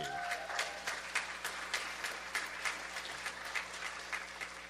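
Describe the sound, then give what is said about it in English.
An audience applauds with many overlapping hand claps, forming a steady, moderately loud patter with faint rhythmic peaks that carries on evenly without any voices rising above it. “But you can clap better than that.”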